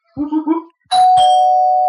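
A brief vocal sound comes first, then a loud electronic doorbell rings for a pizza delivery, striking two chimes in quick succession, its bright tone ringing on steadily until the end.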